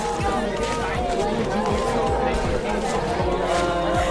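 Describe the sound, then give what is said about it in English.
A dense crowd assembling in large numbers murmurs and chatters continuously while heavy feet stomp in a steady, repeated rhythm underneath, fairly loud throughout. “they assembled in their numbers, the stomps from their feet, the chatter from their lips.”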